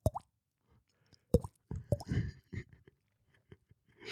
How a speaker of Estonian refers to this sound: ja ta kuulis, kuidas äh, sta, laest stalaktiidi otsast tilkus vette tilgad.